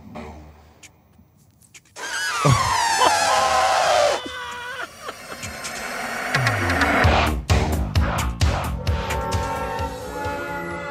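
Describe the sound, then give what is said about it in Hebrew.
A man imitates an elephant with his voice, a loud, strained trumpeting squeal that slides downward in pitch, followed by rougher blaring and sputtering noises. “אני יודע לעשות חיקוי של פיל, אבל.”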